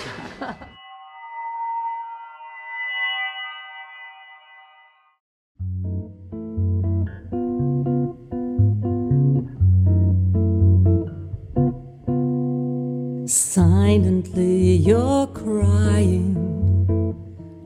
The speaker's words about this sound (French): Donc qu'est-ce qu'on fait on écoute, euh, on écoute un extrait de cet album